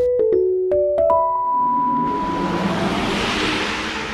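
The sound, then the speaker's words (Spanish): A synthetic electric-car acceleration sound plays loudly from a Harman speaker built for electric cars: quick stepped electronic tones climb in pitch, settle into a steady hum, then swell into a broad rushing whoosh. No one speaks. “Lo que escuchás es un parlante de Harman, una de las principales empresas de sonido del mundo, que desarrolló estos equipos para autos eléctricos”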